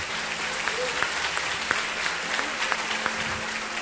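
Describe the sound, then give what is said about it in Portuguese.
An audience applauds steadily to praise God during a sermon about Jephthah, a dense wash of clapping with scattered sharper claps standing out, holding at a fairly even level for a few seconds without talk. “Aplaude a Deus pela vida de Jefté.”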